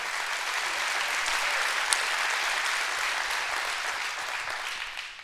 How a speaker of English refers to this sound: One more time, would you give that God a great hand clap of appreciation? I love Him.